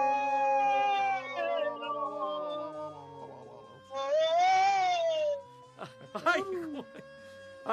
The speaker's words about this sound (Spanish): en la torre! ya, se le acabó la fuerza a la, sirena.